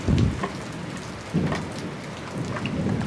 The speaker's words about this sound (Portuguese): E aí dá uma tempestade do caralho. Com granizo, com trovão, com direito. Tudo que uma tempestade tem de direito.